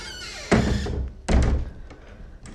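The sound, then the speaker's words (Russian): A window being closed: two heavy, dull thunks roughly a second apart, each followed by a brief rattling rumble before things settle into a low hush. “Сейчас, секундочку, окно закрою, чтобы не шумело.”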